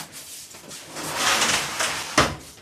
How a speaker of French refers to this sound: tu rentres, tu me fermes la porte.